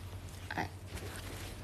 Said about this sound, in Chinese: 哎，好了，吸溜鼻涕时间结束了。